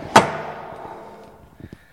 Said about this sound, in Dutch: De deur die eh, gaat met één beweging open. Er zit uh, boven aan de onderkant zit daar zo'n stalen regel.